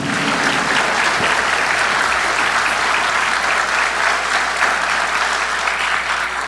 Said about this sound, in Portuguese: E por isso eu quero pedir uma salva de palmas aos profissionais da segurança pública do Brasil.